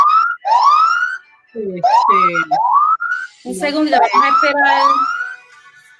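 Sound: alarm going off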